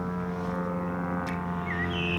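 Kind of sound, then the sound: vehicle, small airplane flying overhead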